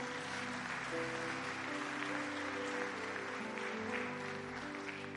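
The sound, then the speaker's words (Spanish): A church audience applauds the Lord steadily, dense continuous clapping for several seconds, with sustained musical tones humming underneath. “Y le damos un aplauso bien fuerte al Señor.”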